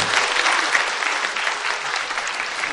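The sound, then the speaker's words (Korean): A crowd applauds steadily, a dense wash of many hands clapping at an even loudness for the full few seconds, with no voices over it. “한 해 동안 대한민국을 잘 꾸려나가지고 이 삶의 길을 헤쳐나온 여러분들 스스로에게 그리고 옆 사람에게 여러분 박수를 한번 부탁드리겠습니다.”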